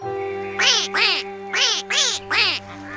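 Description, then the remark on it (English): A duck quacks five times in quick succession, loud, with short even gaps between the nasal calls, over a faint steady background hum. “Though if you had heard it, it would have sounded more like.”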